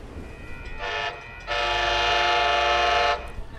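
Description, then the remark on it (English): A train horn blares twice, a short blast followed by a longer sustained one, loud over a low rumble of the moving train as it goes over a small level crossing with a number of cars waiting. “The horn sounding there as we go over a small crossing with a number of cars waiting for us and we're passing by and one of those other large freight trains that we keep coming across.”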